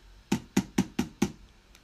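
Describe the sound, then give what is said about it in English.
Five firm knocks on a door by a woman in quick succession, with a solid low thud to each, clear with no voices. “She knocked again.”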